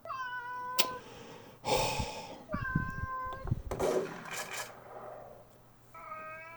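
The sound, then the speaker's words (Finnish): A cat being lifted onto a table meows several times, drawn-out tonal cries with rising and falling pitch, separated by short breathy pauses and a few soft rustling bumps. “No, älä mauu.”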